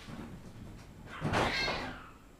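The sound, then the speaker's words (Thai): A single drawn-out cat meow rises and fades over about half a second against a quiet background, not loud, with no one talking. “สียงแมวใหม่”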